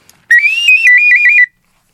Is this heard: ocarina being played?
yes